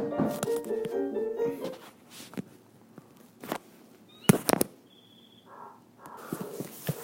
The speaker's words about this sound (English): I'm reading the text, Got a knock on my door. Like, who is at my door right now?